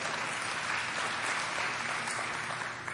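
Steady, dense applause from a large church audience in Ormond, many hands clapping at once in a continuous wash of sound with no pauses, celebrating almost 200 people joining groups.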